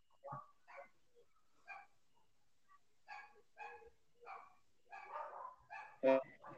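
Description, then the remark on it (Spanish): Several dogs fight outside a house, barking and yelping in quick, uneven bursts, a scrappy back-and-forth that builds to one sharper, louder yelp near the end. “Sí, como por ejemplo ahorita ya unos perros aquí afuera de mi casa ya se empezaron a pelear.”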